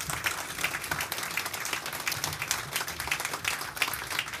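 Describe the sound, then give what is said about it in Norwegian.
Sustained applause from an audience thanking a panel, dense overlapping claps filling the whole stretch at a steady, fairly loud level with no voices standing out. “Tusen takk skal dere ha, og um, stor applaus.”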